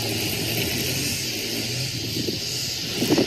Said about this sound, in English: You know what? Even in paradise, they mow yards.